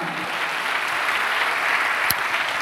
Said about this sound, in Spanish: Dale una aplauso al Señor, amado hermano.